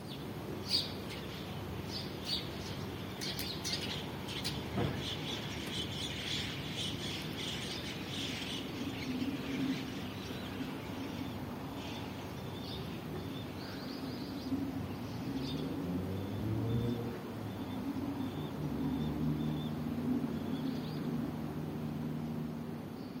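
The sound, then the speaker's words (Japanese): A flock of starlings chattering around 6 a.m. on the morning of December 3, a dense, continuous mix of squawks and high chirps over a steady low rumble, with brief traffic-like whooshes passing underneath. “12月3日の朝の音ムクドリがおしゃべりしていましたと頂いておりますこれどこだろうね朝なんか静かな穏やかな朝でいいですね”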